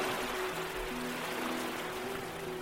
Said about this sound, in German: In der Ferne hören wir das Meer leise rauschen.